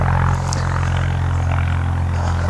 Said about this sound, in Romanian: Ce se aude? Da, Tractorul? Da, se lucrează? Tractor. Ce se întâmplă mai întâi de față? Pe stradă. Pe stradă. Da.